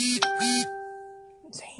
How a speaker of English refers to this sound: sorry for the beeping. Everyone's just sending me like notifications on Facebook